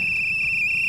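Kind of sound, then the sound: signal or alarm, whistle being blown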